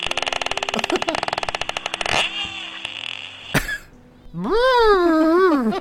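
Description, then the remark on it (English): A voice imitates a porpoise: a fast, rattling train of clicks, a brief pause and sharp pop, then a wavering, squealing whistle that rises and falls, loud. “Here's a porpoise.”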